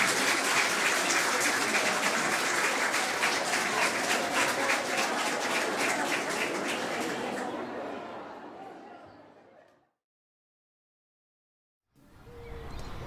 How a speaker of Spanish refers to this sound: Cuatro veces y se despide. Escucha el aplauso. Ovación de Teatro Jen, de pie.